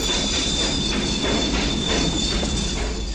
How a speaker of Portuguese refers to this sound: Agora, o trem vai chegando.